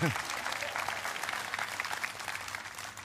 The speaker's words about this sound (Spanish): Amén. Dele el aplauso a ella.